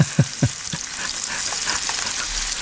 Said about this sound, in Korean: 하, 비 오는데 지금 누가 찌개를 끓이네요. 그죠? 보글보글보글 지글지글, 네.